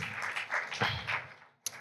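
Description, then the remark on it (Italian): An audience applauding Barbara D'Urso, a dense wash of clapping that holds steady for about a second and a half, fades out, then ends with one sharp isolated crack. “Un applauso a Barbara D'Urso che ci ha regalato queste grandi emozioni.”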